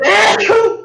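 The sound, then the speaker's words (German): A single loud sneeze with a voiced, drawn-out release that trails off in under a second. “Wow, Gesundheit.”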